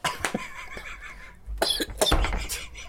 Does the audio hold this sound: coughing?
yes